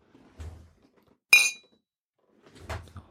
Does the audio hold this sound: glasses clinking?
yes